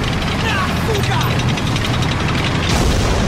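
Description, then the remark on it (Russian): A bundle of grenades, thrown by a soldier under an approaching tank, bursts with a heavy, booming blast near the end. It rises out of a dense, continuous roar of battle noise that fills the whole stretch. “Манягин, поднявшись, бросает связку гранат под приближающийся танк.”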